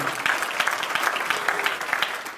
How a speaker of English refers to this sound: The only thing, I'm going to wait while you clap your hands right there.